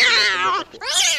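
A female cat lets out two loud meows in quick succession, the first long and drawn-out, the second rising sharply after a brief pause.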